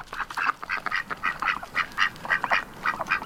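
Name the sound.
ducks quacking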